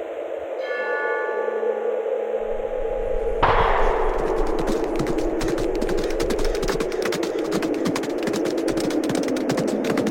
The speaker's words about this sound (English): A loud shout rings from up the way. Horses bolt as thick blood sprays. The gunshot echoes all around.